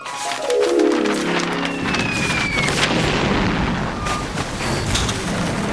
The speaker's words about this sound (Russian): Но только мы вышли в открытое море, нас обстреляло датское военное судно. Пришлось принять бой.